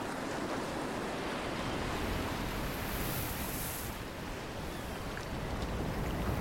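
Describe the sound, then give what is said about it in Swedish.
Steady ocean surf fills the scene, a continuous rushing wash of water with faint wind, as someone paddles lying on their stomach on a surfboard, with the waves about 200 meters out. No voices; the sound stays fairly even throughout. “Med ett mjukt plask började John paddla med magen på surfbrädan. Vågorna låg 200 meter utanför honom nu.”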